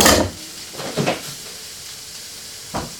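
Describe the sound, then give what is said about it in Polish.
A steady sizzling hiss of chicken breast frying in a pan over a flame, stirred with a spoon, runs throughout, broken by a few short clatters of kitchenware near the start, around one second, and near the end. Nobody speaks. “Słyszymy, że zaczyna nam się wszystko smażyć ładnie.”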